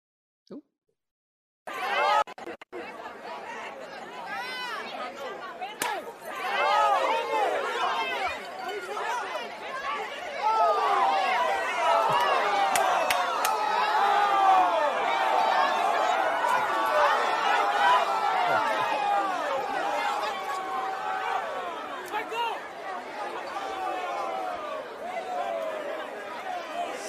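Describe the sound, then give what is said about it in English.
A rowdy crowd of many overlapping voices shouts and clamors continuously during a brawl, loud and dense after a brief silent start, with sharp yells rising above the din. “And, you know, sometimes when there's a big crowd, people just got to step up and defend the situation.”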